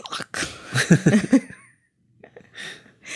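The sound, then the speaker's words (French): A voice imitates a ghost passing through as someone tries to open a door, making breathy, hissing whooshes with a few short wavering vocal bursts, then a brief pause and another airy exhale. “Essayer d'ouvrir une porte et il y a un fantôme qui traverse au même moment. Ça fait quoi comme bruit”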